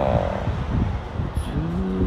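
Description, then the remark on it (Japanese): A loud, steady mechanical rumble of an approaching train fills the whole stretch, with a brief high whine and a rising, sustained tonal hum near the end. No one speaks. “電車が来ちゃう”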